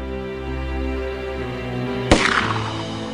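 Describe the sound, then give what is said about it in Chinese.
A single sharp gunshot sound effect from a short gun fired in a room bursts out after a low, steady droning backdrop, its loud crack trailing off into a brief noisy decay. No one speaks. “突然，砰的一声，枪口冒出一缕青烟，顿时火药味弥漫整个房间。”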